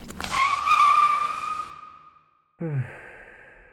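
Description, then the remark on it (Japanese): A bus pulls in with a loud hiss, a passenger boards, and it drives off with a steady squealing whine that slowly fades away, followed after a brief pause by a short breathy burst like a sigh. “乗れてよかった。この辺りバスの本数少ないからな。”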